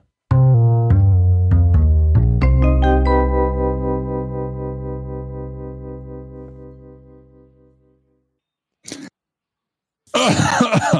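A sustained piano-like chord rings out and slowly fades, followed by a short, sharp cough and then a longer, harsher coughing burst at the very end.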